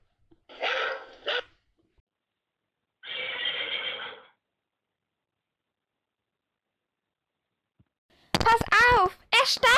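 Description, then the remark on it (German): A dog set loose on a horse at a paddock barks in a loud, rapid burst near the end, tangled with the horse's high whinny, after earlier short noisy bursts separated by quiet gaps. “Nicht wehe, sie bellen noch einmal.”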